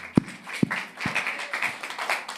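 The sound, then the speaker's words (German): A few sharp, separate claps ring out first, then a dense patter of many hands builds into steady, fairly soft applause from a crowd applauding God. “Komm, und lass uns Gott mal an der Stelle einen Applaus geben.”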